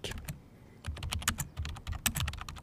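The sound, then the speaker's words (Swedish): Rapid, uneven typing on a PC laptop keyboard, fairly quiet, with many light key clicks in quick bursts and a brief pause near the start. “Själva tangentbordet? Ja. Eller det är en laptop då, misstänker jag.”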